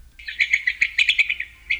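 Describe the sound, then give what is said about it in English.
Gray-crowned rosy finch (Leucosticte tephrocotis) calls: a quick series of buzzy, chirping notes in a rapid irregular burst, clear over a faint low background rumble, with no talking. “The gray crowned rosy finch, Leucosticte tephrocotis, today's Talking Birds featured feathered friend.”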